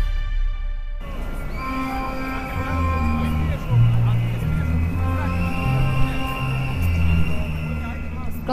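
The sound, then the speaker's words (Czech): Car horns blare in sustained, overlapping tones while shrill whistles cut through above a dense crowd murmur, the loud, continuous din of a street protest in Serbia, where thousands demonstrate against government mining and environmental policy, with cars and buses standing in traffic jams. “klaxony, píšťalky, auta a autobusy stojící v kolonách.”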